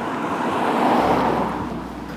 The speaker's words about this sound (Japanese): 車でいう裏道みたいなところでもあるのでちょっと車がここは何台かやっぱり通ってくるんですよね